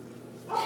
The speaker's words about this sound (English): Also, I'm really sorry that my dog keeps barking. It just comes with the territory.